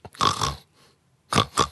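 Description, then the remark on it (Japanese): A person vocally imitates a squealing wiper with pig-like snorts: one long nasal snort, a brief pause, then two quick, close bursts, loud. “豚鼻みたいな音になる時あるさワイパン”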